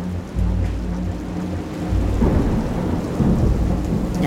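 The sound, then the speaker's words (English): Deep thunder rumbles and booms continuously over steady heavy rain, a loud, rolling storm with a second swell of rumbling midway through and no voices. “I looked around, and the thunder started booming, and the lightning was flashing, and I simply had to have shelter.”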